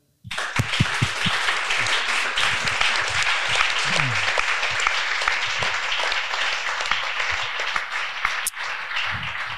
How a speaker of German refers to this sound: Dann würde ich sagen, erstmal vielen, vielen Dank euch äh, Vieren, dass ihr euch die Zeit genommen habt, dass ihr hier seid. Ich glaube, das ist auf jeden Fall jetzt schon einen fetten Applaus wert.